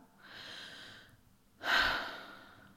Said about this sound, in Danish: Til bare at trække vejret.